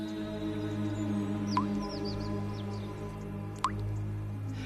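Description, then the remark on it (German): Two separate drops of water, condensed from trade-wind clouds and fog, fall from the leaves of a tree, each a bright, clear plink about two seconds apart, over a steady low background hum with no one speaking. “Und das Wundersame, es tropft von seinen Blättern reichlich Wasser auf die Erde.”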